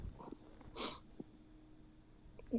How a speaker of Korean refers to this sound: 지금 뭐 훌쩍이시는 게 뭐 아파서 그러신 거예요? 아니면 뭐, 뭐 올라오시는 게 있으셔서 그러신 건가?